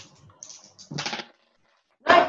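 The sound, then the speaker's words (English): Dice clatter and tumble in two short bursts of rattling clicks, fairly loud, with a pause between as they skitter off the table, one falling behind a cabinet. “Oh, it's fallen behind the cabinet.”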